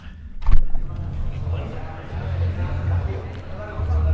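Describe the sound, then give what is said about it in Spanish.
A short knock-like thump as a booth door is opened, then a steady wash of crowd noise from the busy event hall outside the booth: many overlapping voices and a low rumble, fairly loud and continuous. “Y ahora para que veáis el resultado vamos a salir, voy a abrir la puerta y vais a escuchar lo que se escucha, a ver si lo pilla la grabadora.”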